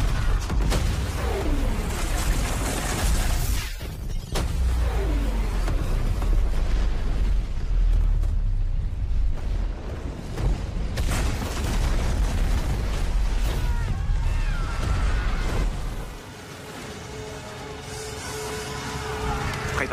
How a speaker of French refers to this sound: En quelques secondes, les navires et les équipages explosent.